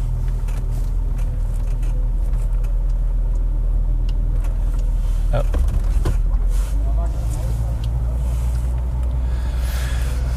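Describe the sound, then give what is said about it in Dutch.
Car wash machinery runs program 3 on a day of heavy rain, with a loud, steady low rumble and a broad hissing wash of noise, broken by a couple of brief sharper surges partway through. “hey, we zijn in de wasstraat.”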